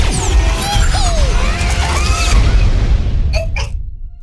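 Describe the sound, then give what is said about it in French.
A heavy door grinds and creaks along under a steady rumble, then slams shut with two loud thuds, followed by near silence. “oh non La porte est en train de se fermer”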